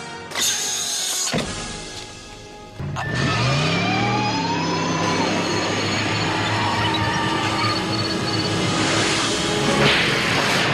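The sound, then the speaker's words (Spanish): A car engine starts up and revs, its pitch climbing as the vehicle pulls away, followed by a steady, loud roar of driving that holds for several seconds with no voices. “Toma las llaves. Conduce con cuidado.”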